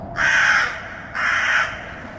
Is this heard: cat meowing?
no